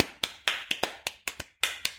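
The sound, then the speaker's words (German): A quick series of about ten sharp knocking taps in an irregular rhythm, fairly crisp, each with a short ringing decay; no one speaks. “Ich klopfe noch ein paar Algorithmen.”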